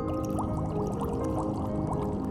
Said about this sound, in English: Maybe in your mind's eye, some ink is being squirted as the squid slips away in the water.